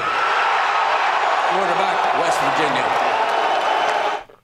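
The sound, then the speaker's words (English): A large crowd at the 2013 NFL Draft reacts to the New York Jets selecting Geno Smith with the 39th pick, a loud, steady roar of mingled voices, individual shouts rising out of it midway, then the noise cuts off abruptly after about four seconds. “Listen to how the crowd liked it and then said, "Oh no, yeah, heaven.”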